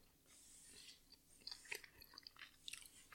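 Wet chewing of a sticky, chewy, honey-sweet peanut butter nougat taffy: soft irregular smacks and squelches, several bites in a loose rhythm, with no one talking.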